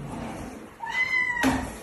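A kitten meows loudly in a high, rising cry that holds for about half a second, then breaks into a short, sharp second call, with no talking.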